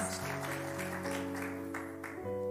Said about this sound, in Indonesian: Yang setuju saya berikan tepuk tangan.